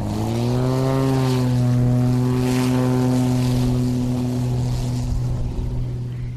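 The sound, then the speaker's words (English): A small propeller air taxi plane in flight drones loudly and steadily, its engine tone holding a low, even hum with a slight waver in pitch, airy rushing noise underneath and no voices. “Besides being fast, the air taxi is the most reliable and safest way to get across the Naknek River.”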